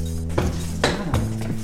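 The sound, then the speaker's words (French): Dishes and pans clink together in about four sharp, irregular knocks with a bright metallic edge, in the kitchen of a rustic holiday house in the village of Céreste in the Luberon, with pans hung above the stove, heard over a steady low electrical hum with no one speaking. “Ah, t'as vu, il y a un nouveau euh, la vaisselle là.”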